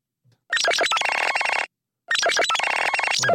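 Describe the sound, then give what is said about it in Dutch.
The ringtone of a Nothing smartphone plays two loud bursts of bright, glitchy electronic chimes, each just over a second long, separated by a brief silence. No one speaks. “Want we hoorden namelijk niets, of ja, nothing, de ringtoon van eh, dat nothing toestel waar we het net over hadden, die telefoon.”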